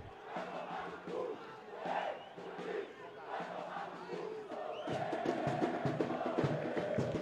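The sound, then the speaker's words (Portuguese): A large football crowd at a Brazilian derby (clássico) involving Guarani chants in unison, rhythmic swelling phrases of many voices rising and falling, growing louder and denser toward the end with sustained massed singing. “Olha, é o clássico. Olha a torcida.”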